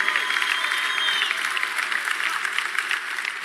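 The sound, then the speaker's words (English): A large church audience claps and cheers steadily for 4,000 people who completed the church's growth track, a dense wash of applause filling the whole moment at a strong, even level with scattered whoops rising above it. “I need you to make a little bit of noise for 4,000 people.”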